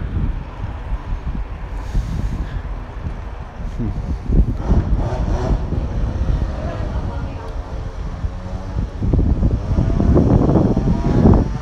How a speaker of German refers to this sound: da fährt gerade einer mit einem Moped-Roller, also mit seinem Scooter. Er sollte eigentlich wie ein E-Scooter sein, aber er hat ihn sich irgendwie Moped-mäßig umgebaut. Der fährt Ist sicher illegal.